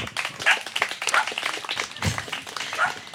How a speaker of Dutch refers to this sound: Dankjewel. Nog één applaus